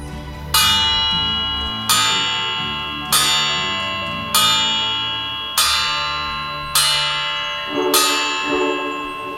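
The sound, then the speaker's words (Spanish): Church bells toll in a slow, steady rhythm, seven loud strikes about every 1.2 seconds, each ringing out with a long metallic decay that overlaps the next. No voices. “Toque las campanas.”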